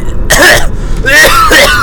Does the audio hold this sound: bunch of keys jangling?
no